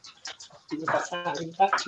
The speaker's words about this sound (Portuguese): Ele não para de piar se ele não ficar aqui com a gente. A gente tem que colocar ele aqui.